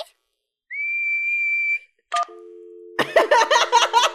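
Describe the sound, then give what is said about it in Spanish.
In a Peppa Pig scene, a single steady whistled note, made by putting the lips together and blowing, held for about a second, clear and fairly loud. A short beep follows, then a low humming tone and lively overlapping voices. “Tienes que juntar tus labios y soplar. ¿Así?”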